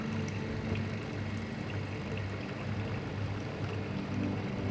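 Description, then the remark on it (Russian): Steady, continuous water bubbling from an aquarium with fish in a home office, with a low mechanical hum running underneath. Even throughout, with no voices. “Стол из светлого дерева, комфортный бежевый стул, широкий подоконник, на котором стоят цветы, аквариум с рыбками”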